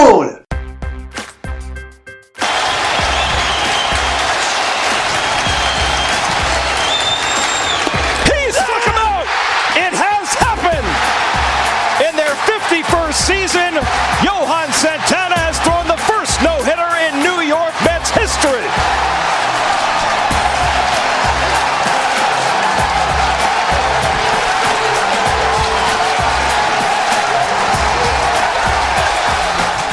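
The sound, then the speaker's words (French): A large stadium crowd roars and cheers continuously, loud and dense, at Johan Santana's 2012 no-hitter for the Mets, with a voice speaking over it and steady rhythmic low thumps underneath. “Euh, ce que vous venez d'entendre c'est Johan Santana, c'est le, son no-hitter pour les Mets en 2012.”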